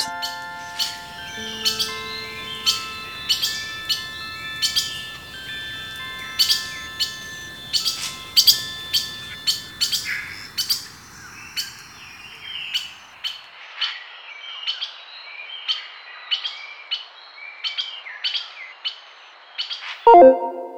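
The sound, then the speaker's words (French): A bird sings a rapid series of bright, repeated chirps and tweets, clear, with sustained tonal notes underneath early on that fade out halfway through; no one speaks. “L'animal se met à chanter. J'y comprends rien, mais je l'écoute.”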